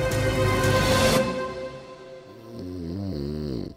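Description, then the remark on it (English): A person snores in a shared bedroom at 6 in the morning: a long, raspy rattling breath, then a pause and a droning, wavering nasal snore. The sound is fairly loud and clear, with no talking. “You can probably hear snoring.”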